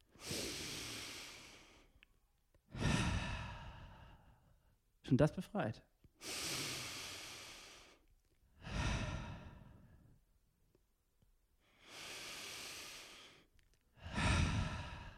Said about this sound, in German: Ja, können wir ganz tief durchatmen. Und ihr da draußen auch alle einmal mitatmen, egal wo ihr gerade seid, ob ihr im Stau seid oder ob ihr das nachts alleine heimlich unter der Decke hört. Jetzt atmen wir einmal zusammen tief durch.